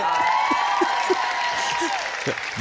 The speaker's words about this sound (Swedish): Där får man alltså applåd för man är snygg.